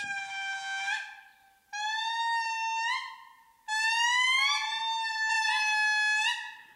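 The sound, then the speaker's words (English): A lemur family group, a rare species of eastern Madagascar rainforests, calls from tree to tree in a chorus of loud, sustained wailing toots and hoots. The calls rise and waver in pitch and come in three long bouts with overlapping voices and no one talking. “And as the dawn breaks and the misty forest begins to lighten up, the groups talk to one another, announce each other's presence uh, tree to tree with these amazing choruses of, of, of toots and hoots.”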